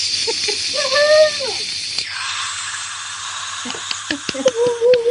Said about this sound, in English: A virtual, that's a virtual crowd, and there are more people in that crowd than there will be at most NFL or NBA or major league games.